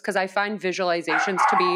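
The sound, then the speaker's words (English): A dog barks several times in quick succession, loud, overlapping a person who keeps talking throughout. “excuse my dog”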